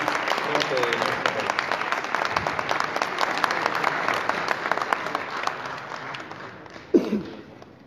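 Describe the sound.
A theater audience applauds steadily, a dense crackle of many hands clapping at once, fading slightly near the end as a voice briefly cuts in.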